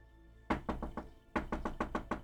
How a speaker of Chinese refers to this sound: 一阵急促的敲门声从门外传了过来。 嗯，这么晚了，谁会来敲门呢？